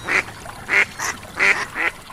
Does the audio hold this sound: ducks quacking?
yes